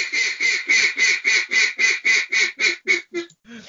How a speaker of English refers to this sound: Everybody's got like a duck call boy, yeah, you know.